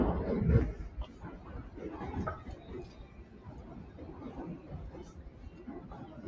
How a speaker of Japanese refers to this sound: あ、すいません。あの、電車が通っててうるさいですね。